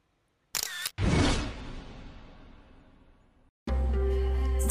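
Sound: camera shutter click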